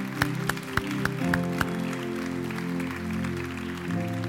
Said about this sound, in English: Can we clap real quick? That was a lot of hands. That was amazing.